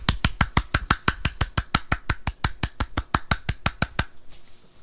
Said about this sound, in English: That was me clapping.